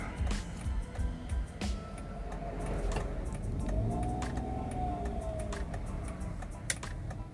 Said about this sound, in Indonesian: soalnya pakai mobil manual jadi kalau mau muter balik agak susah